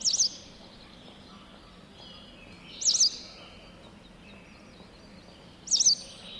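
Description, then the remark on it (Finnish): A white wagtail gives three short, high chirping calls spaced about three seconds apart, clear over a quiet outdoor background with no talking. “Västäräkki, perkele.”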